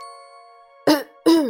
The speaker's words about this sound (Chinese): 故事爷爷清了清嗓子，开始念起了魔法咒语。